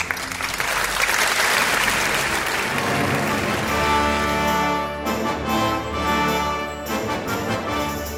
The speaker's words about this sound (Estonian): daamid ja härrad, Eesti Kontserdi saade. aplaus.